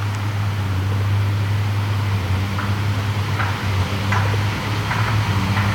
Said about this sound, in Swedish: jättelik lastbil med en båt på. Vägen går ju precis utanför kyrkogården.